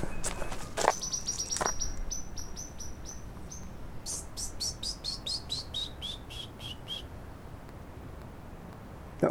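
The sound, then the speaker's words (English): A European blackbird sings a run of high, thin notes in a quick, even series that fades toward the end, clear over soft outdoor hiss, with a couple of brief knocks early on. “like taking this European blackbird and throwing it into an entirely new place where it hasn't had any evolutionary history with the flora at all.”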